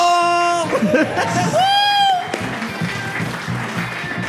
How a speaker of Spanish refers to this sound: Un aplauso para la coreógrafa más lenta del mundo.